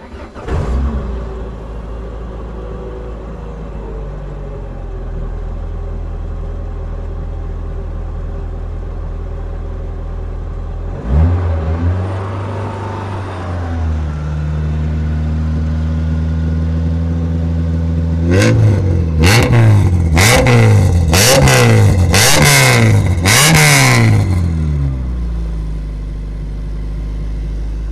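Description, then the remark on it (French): A Citroën Saxo race car engine idles with a deep, steady rumble, then rises in pitch, and finally snarls through a series of sharp, loud revs in quick succession, with no talking. “Bon, on va l'écouter cette saxo.”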